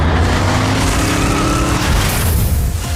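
A huge truck's engine rumbles loudly and steadily as it drives across an icy landscape, a deep, continuous roar for the whole stretch, with no voices.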